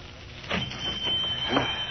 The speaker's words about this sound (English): She heard a bell on the front door tinkle and looked up to see a slightly built, red-haired man come in out of the cold.